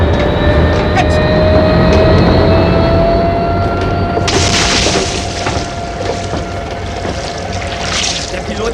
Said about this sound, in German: Köpfe runter! Das Flugzeug fährt gegen uns! Achtung!